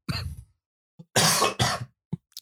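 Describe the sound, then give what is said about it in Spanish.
A fit of harsh coughing: one long rasping cough, a pause, then two quick forceful coughs back to back, with a few small throaty catches trailing after. “te puede toser.”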